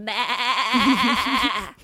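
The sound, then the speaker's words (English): A person imitates a sheep with one drawn-out, quavering bleat lasting almost two seconds. It is fairly loud, with a warbling pitch, alone and without speech. “We will be a sheep for like five minutes.”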